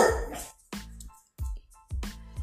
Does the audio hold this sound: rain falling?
no